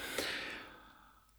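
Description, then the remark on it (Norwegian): A single breathy yawn: a sharp airy onset followed by a long exhale that slowly fades over about a second, with no talking. “Ja, du gjespa fordi du så om det var kjedelig?”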